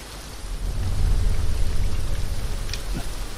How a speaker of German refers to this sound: Dieser Regen ist nicht gut für uns.